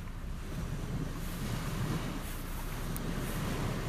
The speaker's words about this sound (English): Building driftwood cities on the beach, distant waves.